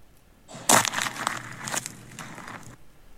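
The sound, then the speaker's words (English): A single loud crunch as a boot steps down on a pine cone in dirt, followed by a couple of seconds of dry crackling and crumbling as the weight settles, with no voices. “what that boot is stepping on. Oh, Megan, a pine cone.”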